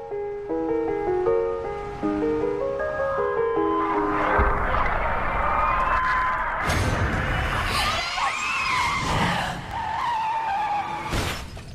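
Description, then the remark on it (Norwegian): A film clip of a car accident involving a mother and child: soft music gives way to loud screeching tires and a roaring engine, then several heavy crashing impacts, the last one sharp and sudden near the end. “Så det som vi hørte i dette videoklippet, er at de, eh, en mor og et barn blir utsatt for en bilulykke”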